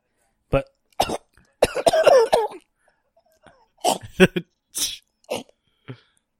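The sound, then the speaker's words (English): A series of harsh, forceful coughs comes in irregular bursts, some bunched into rapid fits with brief pauses between, as someone coughs after swallowing a bug. “Dude, I just swallowed a bug.”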